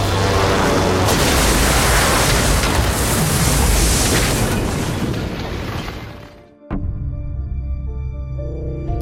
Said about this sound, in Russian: Самолет выныривает из облаков, и тут командир обнаруживает, что земля бешено несется навстречу. Штурвал до упора на себя, перегрузка 4G поздно. Под углом в 30 градусов самолет врезается в землю.